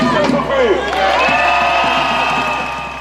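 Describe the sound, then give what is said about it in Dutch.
Hundreds of angry protesters cheer and shout in the streets of Vienna, Austria, with whistles and overlapping voices forming a dense, continuous roar that fades slightly toward the end. “Dit weekend gingen in de hoofdstad Wenen honderden boze Oostenrijkers de straat op.”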